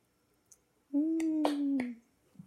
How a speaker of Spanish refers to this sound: pongo mi aplauso